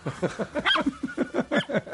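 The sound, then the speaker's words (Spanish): A plastic squishy toy squeaks rapidly over and over, its short high yelps mimicking a small dog's barking, fairly loud, with bits of laughter mixed in. “Eh, uno de esos de plástico. Ah, vale, vale. Un squishy de esos.”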